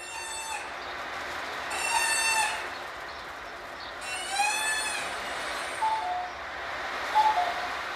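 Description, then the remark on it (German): Squeaky, wavering seabird-like calls from homemade noisemakers made of old bicycle tubes: two longer warbling squeals, then a few shorter chirps, moderately loud over a steady background hiss. “Er hat noch andere Sachen, die pfeifen und schwirren und quaken. Diese kleinen Seevögel entstehen aus alten Fahrradschläuchen, glaube ich.”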